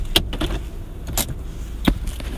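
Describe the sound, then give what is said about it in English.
A car arriving home rolls to a stop behind another parked car, with a low, steady engine rumble underneath, broken by a few sharp mechanical clicks and knocks spaced out over the moment. “I'm pulling up behind my wife's car.”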